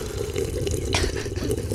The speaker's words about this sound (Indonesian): Itu tadi suara teh loh, bukan suara pipis gue.